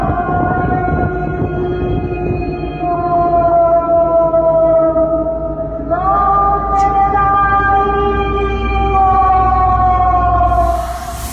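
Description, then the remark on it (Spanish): Spooky, ghostly sound effects used to keep children and teenagers from going out into the street during the health contingency: a loud, continuous wailing drone with layered overtones that slowly slides in pitch, stepping up abruptly partway through, with no voices. “Como nueva estrategia para que la gente en caponeta no salga, estamos implementando sonidos espectrales para que todos sus niños y adolescentes no salgan a la calle.”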